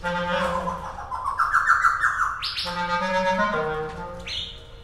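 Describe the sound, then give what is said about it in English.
A laughing thrush, a small bird with brown feathers and a dark beak, calls: a loud, continuous run of rich, harmonic notes that rise and sweep, then jump in sharp pitch steps, with no talking over it. “The laughing thrush was interested.”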